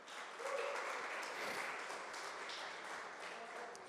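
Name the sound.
audience applause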